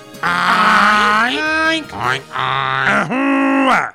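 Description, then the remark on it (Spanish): A human voice imitates a pig's warning grunts alerting piglets to danger: several loud, drawn-out nasal grunts with rising and falling pitch, separated by short breaks, with no other sounds around them. “Oigan cómo alerto de peligro a mis bebés.”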